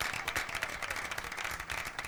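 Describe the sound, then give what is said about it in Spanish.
A crowd in Rosario applauds steadily, many hands clapping in a dense, continuous patter that holds at an even level throughout, with no one speaking over it. “Fuerte el aplauso, ¿eh?”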